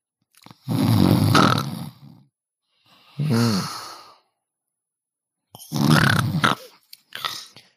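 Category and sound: vocal imitation, voice imitating snoring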